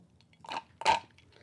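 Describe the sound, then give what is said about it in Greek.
Two quick sips of coffee, each a short wet slurp about half a second apart, fairly loud against a quiet background with no talking. “Εγώ κάτω από μια γουλιά καφέ και λέω να ανοίξουμε γραμμέ.”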